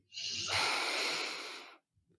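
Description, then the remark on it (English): A single deep inhale drawn in through the nose during a guided breathing exercise, a breathy rush of air lasting about a second and a half, heard alone with no talking over it. “So imagine that green, warm feeling. Mm-hmm. You're breathing it in”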